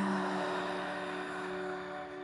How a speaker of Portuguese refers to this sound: soltando a garganta com um barulho de oceano.